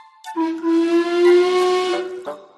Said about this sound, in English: how on his journey Thomas met an engine called Duchess, a very special cream coloured tender engine, with a whistle that sounds like this.